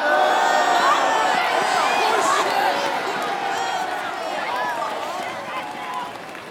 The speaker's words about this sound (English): As you get close to the gate, the gate is op- like slowly opens and you walk inside. The crowd boos.